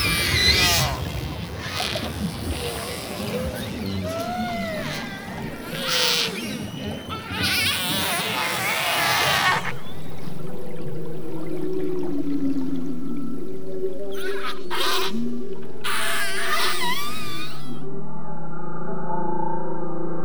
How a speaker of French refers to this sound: C'est exactement un dialecte. Les, femelles sont attirées par euh, des orques qui n'ont pas leur, euh, leur, type de son, c'est-à-dire par les étrangers, par, en tout cas par les orques qui ne sont pas du même groupe social qu'elles.